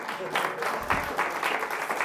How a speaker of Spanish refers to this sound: Con ustedes, el famosísimo, el popular, el bien reconocido, el teólogo de teólogos. Pablo de Tarso, lo vamos a recibir con un aplauso, por favor.